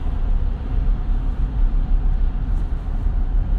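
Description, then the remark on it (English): A steady, low rumble of road traffic fills the space, a continuous dense drone of engines and tires with no clear individual vehicles standing out and no voices. “This traffic is a mess today, man. I've never seen this busy.”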